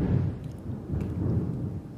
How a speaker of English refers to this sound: And we got thunder. And I saw lightning. Up that way.